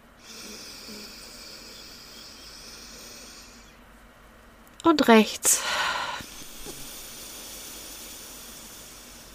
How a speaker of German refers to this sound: Ich stoppe das jetzt hier mal, weil ich so Pfeifgeräusche mache mit meiner Nase, die etwas verstopft ist heute.